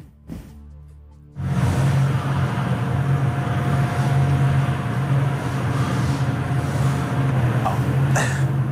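A loud, steady mechanical ventilation (VMC) rumble in a man's home kicks in after a quiet start and drones continuously with a strong low hum, like a fan unit running at full power, with a couple of faint clicks near the end.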